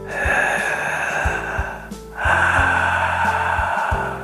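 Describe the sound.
Loud, raspy breathing forced through a constricted throat as a breathing exercise, one long noisy inhale or exhale, a brief pause, then another long rasping breath, with no talking.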